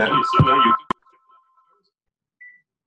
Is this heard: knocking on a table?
no